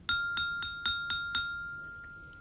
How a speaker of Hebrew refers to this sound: אישון העץ הוא איש קטן מאוד, לבוש בחליפה ירוקה קטנה, נועל קבקבי עץ קטנים וחובש מצנפת אדומה, שבקצה קציה יש פעמון שמשמיע צליל נעים.